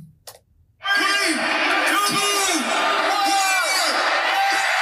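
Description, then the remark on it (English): After a brief thump, a huge Gamecock football stadium crowd erupts into sustained, loud mass yelling, 40,000 people on one side yelling "damn" and 40,000 on the other yelling "Cox", voices blending into a dense roar with rising and falling shouted chant swells. “So 40,000 people on one side are yelling "damn," and 40,000 people on the other side of the stadium are yelling Cox”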